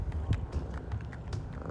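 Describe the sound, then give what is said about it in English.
A cat purrs steadily in front of a house on a sunny day in southern Arizona, a low continuous rumble with a gentle pulsing rhythm, joined by a few faint clicks and taps throughout. No one speaks. “Oh, he's just purring away.”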